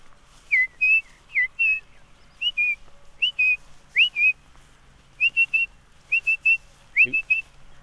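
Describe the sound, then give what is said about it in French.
A song thrush sings a run of clear, whistled phrases, each repeated two or three times with short pauses between, standing alone against quiet background. “voilà on entend encore la grille musicienne.”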